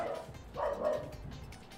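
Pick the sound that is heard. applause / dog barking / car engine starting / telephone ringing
dog barking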